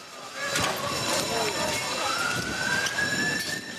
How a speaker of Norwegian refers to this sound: Ambulanser i regjeringskvartalet.